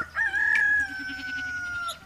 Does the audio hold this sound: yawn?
no